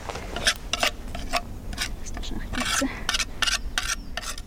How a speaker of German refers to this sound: Die Bodenkundlerin putzt ihr Werkzeug.